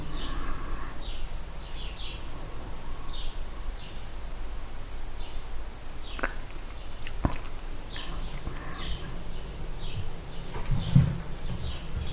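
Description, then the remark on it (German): Small birds chirp outside in short, high, repeated bursts spread across the whole stretch, fairly faint over a steady background hiss, with a few sharp clicks and a low thud near the end. “Da draußen sind Piepmätze.”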